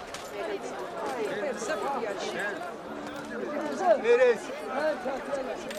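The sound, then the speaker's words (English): A large crowd chatters in a steady, overlapping murmur of many voices with no words standing out; a few voices rise louder for a moment partway through. “A large crowd came to him, and he began to teach them.”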